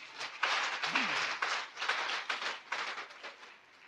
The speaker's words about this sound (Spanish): ¿Cuántos tienen una relación con Cristo aquí? Denle un aplauso al Señor Jesús.